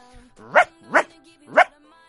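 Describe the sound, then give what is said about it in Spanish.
A person imitates a dog with three sharp, barking yelps, evenly spaced about half a second apart, fairly loud with a faint hum between them. “Y mi especialidad es el perro, que ahora seguramente no me salga, pero lo voy a intentar.”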